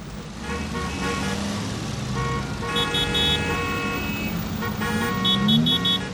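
A car engine rumbles steadily amid road traffic while horns honk in short bursts, a cluster of bright toots midway and another near the end, with no one speaking.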